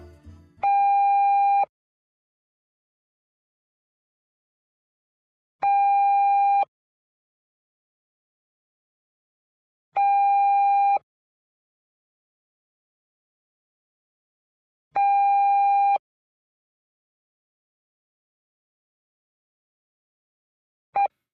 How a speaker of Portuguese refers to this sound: Afinal, tudo começa com o sinal do horário. E esse sinal, repetido cinco vezes, cinco traços de som marcados pelo relógio preto com pontos vermelhos, o sinal horário, o sinal do tempo.